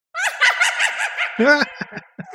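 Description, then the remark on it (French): A Halloween witch's cackle sound effect: a shrill, rapid run of harmonic laughing bursts followed by a lower, drawn-out cackle and a few short trailing hoots, with no talking. “Eh bien, juste, juste parce qu'on est Halloween, je vais, je vais remettre la sorcière.”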